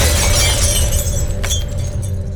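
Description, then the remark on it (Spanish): Mirror glass shattering as the Beast punches his reflection: a loud, crackling burst of bright, splintering noise over a low rumble, with a sharper crack partway through as shards keep tinkling. No voices. “Bestia le dio un puñetazo a su reflejo.”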